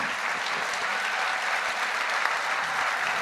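Sustained audience applause at a benefit performance, a dense, steady wash of many hands clapping at an even, fairly loud level throughout, with no voices standing out above it.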